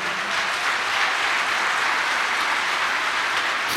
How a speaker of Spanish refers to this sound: Y qué triste, amado hermano, sí, dale un aplauso a Dios si puede.